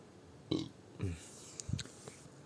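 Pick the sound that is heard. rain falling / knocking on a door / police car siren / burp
burp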